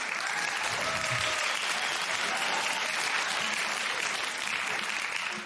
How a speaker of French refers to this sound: Ouais, je veux les applaudissements. Ah ben, euh, bravo.